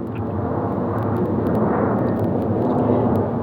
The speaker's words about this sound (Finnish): Otetaan nyt sitten lentokoneen äänet mukaan ja tietysti luonto sieltä